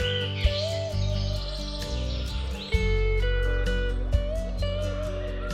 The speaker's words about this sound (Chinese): 你听到更多的小鸟在唱歌着，一阵阵的清脆小鸟歌声。好好听，好动人。